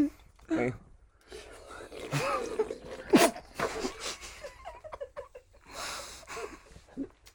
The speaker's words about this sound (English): Wait, let's take a slurp on the middle of the microphone, really loud, obnoxiously.